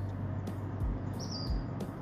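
A bird sings a brief, thin whistled phrase, fairly faint, at sunrise, over a steady low rumble of background noise, with no one talking.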